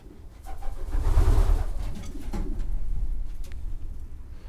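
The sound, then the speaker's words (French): Low, throaty cooing from a loft of about a hundred racing pigeons, a soft continuous murmur with overlapping calls and occasional faint rustling, moderately loud, with no one speaking. “En gros, j'ai à peu près une bonne centaine de pigeons.”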